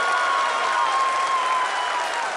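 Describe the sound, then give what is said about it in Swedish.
People in a control room burst into steady, dense applause mixed with cheering, loud and sustained without a break, with a faint high tone running underneath, as India's probe lands on the Moon's south pole. “Ja, som ni hörde var lyckan total i kontrollrummet när sonden landade.”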